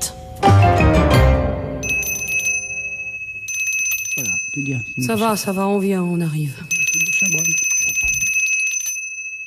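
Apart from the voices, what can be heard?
small hand bell ringing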